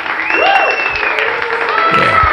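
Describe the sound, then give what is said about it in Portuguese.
Steady, dense clapping from a crowd fills the whole stretch at an even loudness, with a few rising and falling whistles or cheers gliding over the top. “Cadê as palmas aí?”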